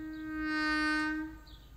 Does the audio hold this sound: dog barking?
no